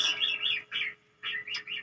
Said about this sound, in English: That's my goose in the background.